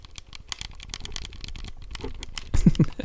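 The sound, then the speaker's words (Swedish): Rapid, irregular plastic clicking from an Xbox One controller D-pad, crisp, dozens of quick presses in a busy stream with a brief low murmur near the end. “Så här låter en Xbox One.”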